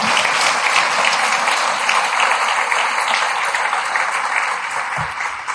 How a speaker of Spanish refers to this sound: ¿Lo recibes? Si lo recibes, dale otro fuerte aplauso al Señor.